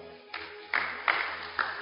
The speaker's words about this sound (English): You are correct. Let's clap for her.